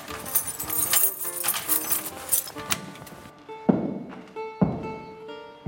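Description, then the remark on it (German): Metallic rattling and clicking of a key working a lock, then two heavy wooden thuds as a large door is pushed open, echoing in the quiet: the castle administrator unlocking the door to the residential wing of Burghausen Castle, Europe's longest castle complex. “und sperrt die Tür zum Wohntrakt auf Europas längster Burganlage auf.”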